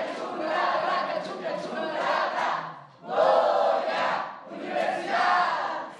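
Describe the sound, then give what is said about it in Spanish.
A crowd chants the UNAM Pumas "Goya" university cheer ("México, Pumas, Universidad. Goya, Goya, cachuca") at the Prisma RU third anniversary, broadcast on Radio UNAM, in loud, rhythmic bursts of many voices, with a brief dip before the chanting surges again. “Los invito a llamar a la música con la palabra para hacer un Goya, ¿de acuerdo?”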